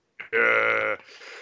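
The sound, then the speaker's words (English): A short, loud, throaty comedic snort rasps out, brief and guttural enough to pass for a burp, followed by a faint breathy trail. “Sorry, that was a snort.”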